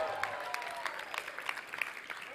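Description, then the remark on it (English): A crowd applauds for Jesus, many hands clapping in a dense, crackling patter with sharper individual claps popping out, sustained at moderate loudness for the whole stretch. “Come on, let me hear a little clap of Jesus.”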